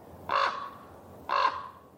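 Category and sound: bird, raven cawing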